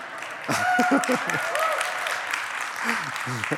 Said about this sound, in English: These guys always play really good music, don't they? I'm always amazed at what they can do. Got two claps for that.